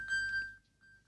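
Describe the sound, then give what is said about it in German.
An iPhone ping, set off by tapping the ping button on a watch to find the iPhone, sounds: a steady high-pitched electronic beep lasting about half a second, followed by a faint, brief echo of the tone, with no talking. “piept es halt einmal”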